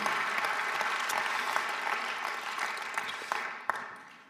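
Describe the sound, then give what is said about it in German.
An audience claps steadily in greeting to the video-linked locations Rapperswil, Winterthur, Frauenfeld, Zürich Oberland and Bruck, a dense wash of many hands with a few sharper individual claps standing out, tapering slightly toward the end. “Mit euch videomäßig das ein Applaus geht nach Rapperswil, Winterthur, Frauenfeld, Zürich Oberland, Bruck.”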